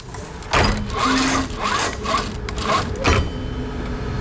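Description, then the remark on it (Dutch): Microfilm reader machines in an archive whirring and grinding steadily, with short low electronic beeps sounding a few times through the mechanical noise; rows of large, square, beige machines sighing and beeping as people operate them. No voices are heard. “Voor me staan rijen en rijen microfilmmachines. Grote, vierkante, beige beeldschermen die zuchten en piepen terwijl de mensen ze bedienen.”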